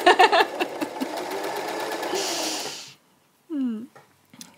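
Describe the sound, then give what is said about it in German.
A sewing machine stitches on a sleeve through all fabric layers, whirring steadily with a fast rhythmic chatter for about three seconds before stopping; a short voice sound follows in the quiet. “So, und jetzt wirklich darauf achten, alle Lagen zu erwischen und entsprechend ähm, den Ärmel anzunähen.”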